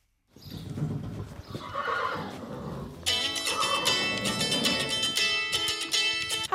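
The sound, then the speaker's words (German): A horse in a stable whinnies loudly and repeatedly, its harmonic neighs rising and falling, while hooves clop faintly underneath on a hard surface as its rider readies it for a ride. Nobody speaks. “Ich bin gerade dabei, mein Pferd. Gleich gehe ich ausreiten mit Amadeus.”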